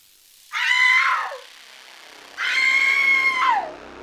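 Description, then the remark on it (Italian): A woman screams twice in long, shrill, wailing cries of about a second each, separated by a short pause, the second trailing off into a falling tail. Loud and alone. She is a grandmother screaming as she chases someone. “Si voltò di scatto verso di me e urlando iniziò ad inseguirmi.”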